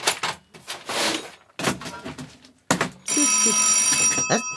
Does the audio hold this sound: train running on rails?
no